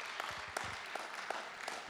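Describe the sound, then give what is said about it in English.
Soft applause from a small audience, a steady wash of clapping with a few sharper claps standing out at intervals; a faint voice murmurs briefly near the start. “Give him a round of applause.”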